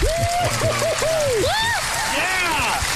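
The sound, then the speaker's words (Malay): Steady crowd applause, given as a spirited round of encouragement before a talk about sports, fills the whole stretch, a dense wash of clapping with voices whooping and calling out over it. “Oh, tapi tu sebelum tu kita bagi tepukan semangat dulu ah.”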